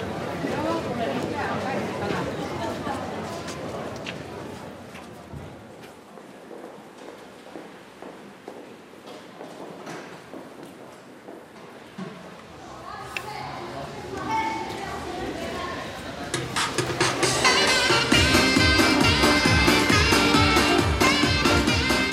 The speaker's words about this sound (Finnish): Parkkihallissa on sunnuntaisin kirpputori. Sinne ei aurinko paista eikä sadekasta. Keskellä hallia myydään käristen makkaraa ja kahvia, lapsille lakua.